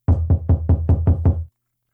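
A quick series of about seven firm knocks on an apartment door, evenly spaced, with a solid low thud to each rap before everything falls silent.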